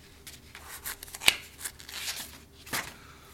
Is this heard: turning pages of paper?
yes